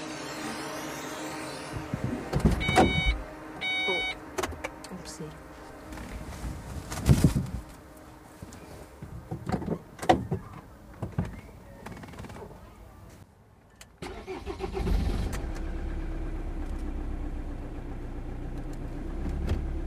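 Footsteps and a few sharp thuds of car doors opening and slamming as someone gets into a car to drive home, with birds chirping outside, then an engine turns over and settles into a steady low idle.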